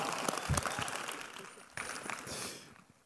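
audience applause

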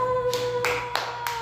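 hand clapping

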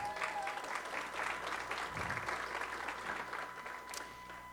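audience applauding

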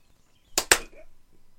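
single hand clap

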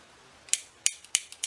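scissors snipping

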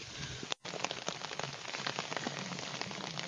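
rain falling outdoors

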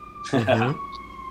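ambulance siren passing outside

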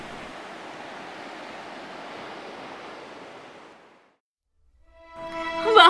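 ocean waves

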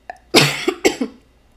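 coughing

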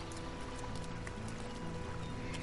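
flowing stream water

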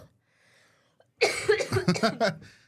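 coughing fit

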